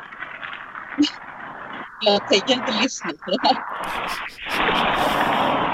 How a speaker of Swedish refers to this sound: Nej, det enda som hörs är nästan jävla trafik här alltså.